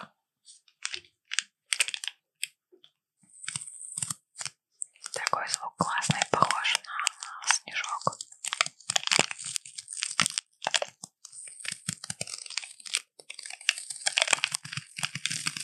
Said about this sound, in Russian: Чайный пакетик. Почти. А кофейный пакетик три в одном.